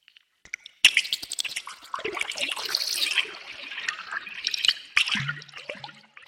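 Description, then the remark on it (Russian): Water drips and splashes, recorded with a hydrophone, starting abruptly after a brief pause into a dense, bright patter of droplets, with a few sharper plinks standing out near the end. No voices. “Каким образом журчание и плеск воды отражаются в творчестве”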